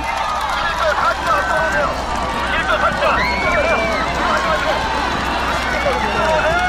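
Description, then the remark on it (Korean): A group of people runs past in a race at a neighborhood sports day, their footsteps blending into a steady patter over continuous crowd babble and scattered voices in a busy outdoor setting. “지금 막 뛰고 들어오신 거죠?”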